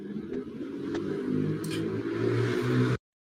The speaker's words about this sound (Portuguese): Tá passando o carro.